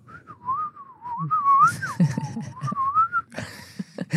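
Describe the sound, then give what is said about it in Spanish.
A person imitates the whistling someone makes while deeply asleep: a single wavering, breathy whistle that dips and rises in pitch for about three seconds, followed by a brief rustle and a low murmur. “tú chiflas, amor.”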